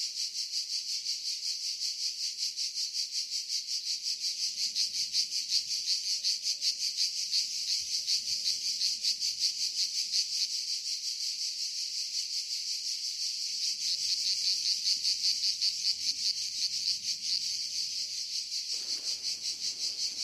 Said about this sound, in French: Euh, on va se faire chier si on écoute des grillons ou tu vois des.